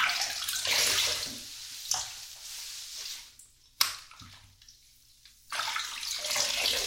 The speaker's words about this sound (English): Let's rinse the shampoo out. Close your eyes, babe. I don't want you getting shampoo in them like last time.